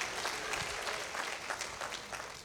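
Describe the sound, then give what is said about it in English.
A church audience bursts into sustained applause in praise, dense overlapping clapping at a steady, fairly loud level for a couple of seconds, with no talking heard. “Come on, give y'all some praise up in this house.”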